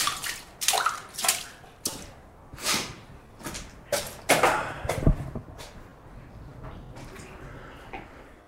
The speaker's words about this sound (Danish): Jeg er tilbage oppe på bjerget. Øh, en del af sneen er smeltet. Til gengæld så blæser det kraftigt op nu.